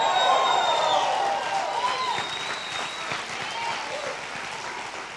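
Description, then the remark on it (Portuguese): An audience applauds and cheers, steady dense clapping with whoops and high shouts rising over it, loudest at the start and easing slightly as it continues. “Obrigado pela empolgação.”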